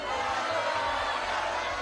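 A crowd applauds steadily for a couple of seconds, a dense, even wash of clapping with a faint murmur of cheering mixed in, fairly loud and continuous throughout.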